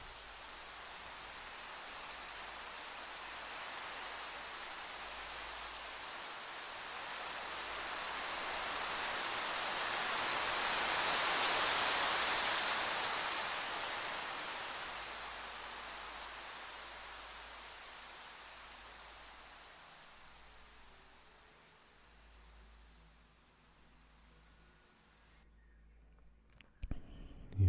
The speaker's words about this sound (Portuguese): A força da chuva leva-o embora.